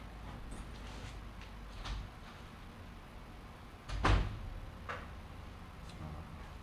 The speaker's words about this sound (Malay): Bila kucing nak keluar dia suruh aku buka pintu.